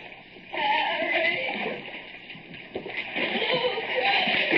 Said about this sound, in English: Slimy walls. Water lapping softly at my chest. Keep feeling around.